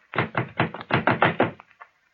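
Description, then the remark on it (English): A quick series of about eight loud knocks on a wooden door in a steady rhythm, ending with a couple of softer taps, with no voices. “Try another door, Laroque.”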